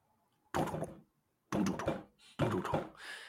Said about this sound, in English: Um, however, as you're sitting in there and as you confirm that, okay, there isn't any other magic, you hear a knocking on the wood.